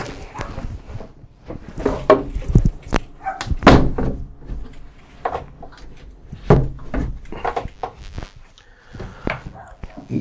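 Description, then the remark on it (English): Dogs next door bark in short, sharp bursts from outside, mixed with knocks and a thud as a window is closed, moderately loud. “Let me close the window. These dogs next door, they, uh,”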